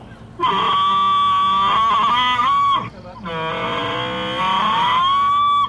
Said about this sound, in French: Et non, comme le chameau, le dromadaire blatère. Écoute-en un qui n'a pas l'air très content.